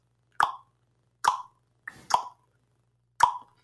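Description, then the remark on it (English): Four crisp tongue pops, made by elevating the tongue and clicking it off the roof of the mouth, sharp and spaced irregularly with brief silences between, plus a softer rustle just before the third pop. “Now, normally when I'm working with students, I'll ask them to make the popping sound.”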